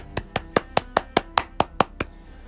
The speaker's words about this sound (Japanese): なんかね、一人で拍手するのもなんか虚しいですけれども、はい、頑張ってやっていきましょう。